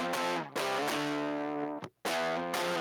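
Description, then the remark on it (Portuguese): A distorted electric guitar line from an album plays a sustained, buzzing melodic line with rich harmonics, briefly cutting out near the end before resuming at full volume. No voices are heard. “Aí, ó, olha o som da guita, olha a linha.”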